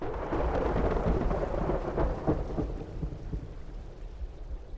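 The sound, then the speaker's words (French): Heavy rain pours steadily during a night-time thunderstorm over a lake while deep thunder rumbles and rolls underneath, loud, with no voices, just a continuous stormy wash of sound throughout. “Après une nuit d'orage mouvementé, le lac est devenu entièrement marron, l'eau n'est plus limpide.”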